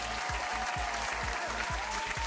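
An audience applauds continuously, a dense, steady clapping that stays loud throughout, with a regular low thumping beat pulsing underneath about twice a second.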